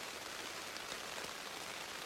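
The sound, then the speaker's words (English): Heavy rain pours steadily onto a surface during a hunting trip, a dense, unbroken hiss with fine pattering texture throughout. It's continuous and evenly loud, with no voices or other sounds. “Now it's really coming down.”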